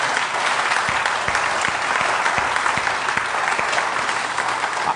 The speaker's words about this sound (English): Hey, before we jump in, can we do this? Can we just, uh, you know, I'm not going to ask any guests to stand or anything like that, but can we just, by round of applause, welcome those that chose to come here this morning and hang out?